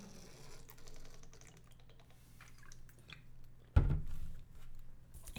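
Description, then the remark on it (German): Someone drinks from a large water bottle right up close, with soft wet mouth clicks and gulps, then a sudden loud plastic knock near the end. No one speaks. “Und dann verlinke ich immer diese 5 Sekunden des Trinkens”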